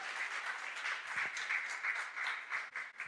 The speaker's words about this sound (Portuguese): Você pode aplaudir ao Senhor. Glória a Deus.